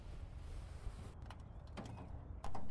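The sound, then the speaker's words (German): A jammed, warped door creaks and strains as it is forced, with several short groaning creaks over a steady low rumble, ending in a sudden louder jolt. “Ich krieg die Tür nicht auf.”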